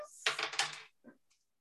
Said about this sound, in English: And let me roll what we call damage to see how hurt you are. I'm rolling dice. I love rolling dice.